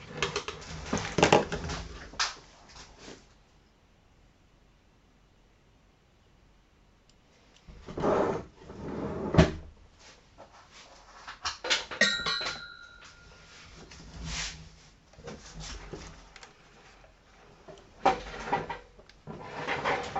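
Plastic clicks, taps and rustling as headphones are fumbled with and sorted, coming in irregular bursts with a quiet pause early on, plus a brief faint tone in the middle, and no talking.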